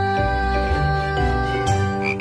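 Frog croaking in a steady run of low, raspy croaks lasting a couple of seconds, blended with sustained tonal notes, fairly loud, with no one talking.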